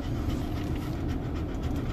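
A dog pants quickly and steadily in the back seat of a moving car, its breaths riding over a constant low rumble of the vehicle. No one speaks.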